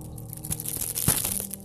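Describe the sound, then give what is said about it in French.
Dense crinkling of a plastic wrapper being handled by hand, with irregular crackles and one sharper crunch near the middle; no speech is heard. “c'est moi avec un papier plastique que j'ai.”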